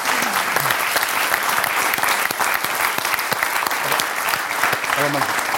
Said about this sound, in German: In Nikotin, okay. Dann gibt sofort Applaus.